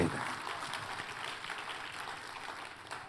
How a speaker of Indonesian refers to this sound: Boleh katakan amin. Tepuk tangannya yang paling meriah buat Tuhan.